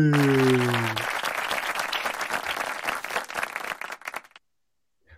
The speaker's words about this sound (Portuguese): Ah, peraí, peraí, deixa eu preparar as palmas. Tem que ter palmas.